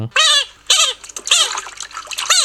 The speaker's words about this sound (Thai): แล้วก็กบบางตัวก็จะกรีดร้องเสียงดัง